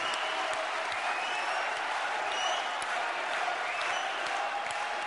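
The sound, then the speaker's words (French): Steady audience applause at a UPR political gathering, applauding a man's testimony: a dense wash of many hands clapping at an even loudness throughout, with no clear gaps or speech standing out. “Vous pouvez encore l'applaudir très fort”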